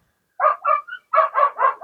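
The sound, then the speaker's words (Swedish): A dog barks about seven times in quick succession, loud, with a short pause partway through before a steady run of sharp barks. No one speaks. “Och här kommer det hundar också.”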